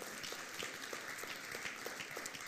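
An audience applauds the Lord steadily, a dense wash of many hands clapping with a faint regular pulse running through it, sustained throughout with no voices.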